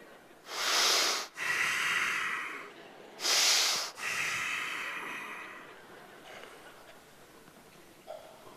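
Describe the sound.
Two loud, drawn-out huffing breaths, each a sharp inhale followed by a long, heavy exhale, exaggerated and exasperated, with no talking.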